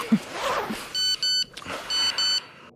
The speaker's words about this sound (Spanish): Un mensaje de texto. Apuesto a que es tu novia que te desea buenos días.